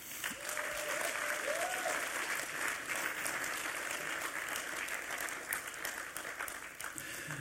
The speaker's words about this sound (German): Denen muss man einen kräftigen Applaus geben. Hey, Welcome Point, Leute, die dort dabei sind, merci mal für euren Job, oder ihr macht.